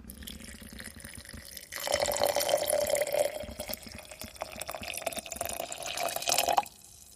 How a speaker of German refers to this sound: Gut, also die Kastanien sind geviertelt. Wir Geben das Ganze jetzt in eine Schüssel. Also, nee, wir haben ein kleines Schraubglas. So. Und übergießen das Ganze mit 400 Milliliter heißem Wasser.